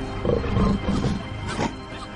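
A tiger lets out a loud, angry roar as it retreats into its cave, a deep rumbling snarl lasting about two seconds with a gritty, growling texture and no talking around it.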